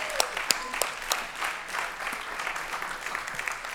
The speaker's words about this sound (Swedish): Ge henne en varm applåd!